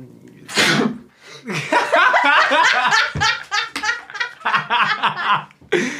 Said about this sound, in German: Gesundheit